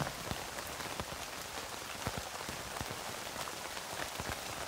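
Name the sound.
rain falling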